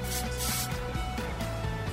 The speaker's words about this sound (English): You're too close. Step away, or I'll spray you with this can of unleaded hand sanitizer.